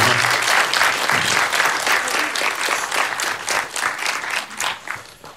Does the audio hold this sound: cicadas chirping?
no